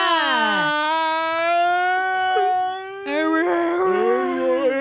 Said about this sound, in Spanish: ¿Por qué está llorando? Llora en cámara lenta.